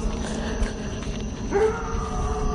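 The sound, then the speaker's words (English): A dog barks and yelps outdoors at night, its voice rising into a drawn-out, whining cry midway through, over a steady outdoor background hiss with no one talking. “as the dog continues to bark.”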